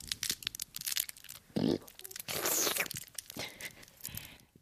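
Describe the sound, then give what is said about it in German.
Crinkling of the wrapper of a leftover candy from a summer party bag: dense, crackly rustles and brittle crunches in irregular bursts, fairly loud, with no talking. “Das ist eines der übrig gebliebenen Bonbons, die noch nicht gegessen worden sind.”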